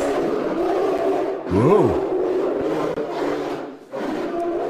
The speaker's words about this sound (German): Ja, das klingt tatsächlich eher so ja, nach. Äh, weiß ich nicht, nach Löwe, der mich anbrüllt, bevor es dann vorbei ist. Aber, ja, genau. Ja. Also so weinen Eisbären.